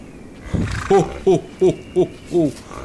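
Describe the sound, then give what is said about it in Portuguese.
Ten reindeer pulling a sleigh call out in a series of five or six short, low, hooting grunts, evenly spaced, each rising slightly in pitch, over a faint background hiss. “Na verdade, não são cavalos, são renas. E este é o barulho que as renas fazem.”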